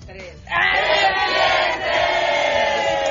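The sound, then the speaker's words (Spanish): An invited audience in a radio booth bursts into a loud, sustained collective shout of "viernes" after a brief quieter moment, holding strong for about two and a half seconds with a slight dip midway. “pero también tenemos hoy público invitado que vino a gritar con nosotros, así que gracias.”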